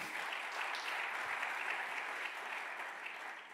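An audience applauds steadily, a dense wash of many hands clapping at an even level for a few seconds, fading a little at the end, with no voices over it.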